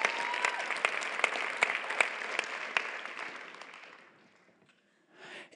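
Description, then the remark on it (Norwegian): A crowd claps steadily for about four seconds, dense, with a few sharper individual claps standing out, then the applause fades away into near silence. “Come on, la oss gi en skikkelig klør.”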